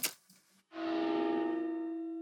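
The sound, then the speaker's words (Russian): A brief noisy burst gives way to a loud, sustained metallic ring from a tank's gun barrel after the tank fires, recorded at a real firing range; steady low tones with bright overtones that hum on and fade only slightly. “А после выстрела танка а, стоит просто а, звон от ствола, да, то есть как будто по стволу очень сильно ударили, да, после выстрела он просто звенит.”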